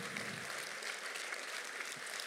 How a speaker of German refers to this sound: Okay, hey, winkt mal und gebt ihm mal einen Applaus.